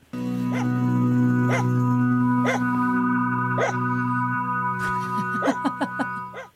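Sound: dog barking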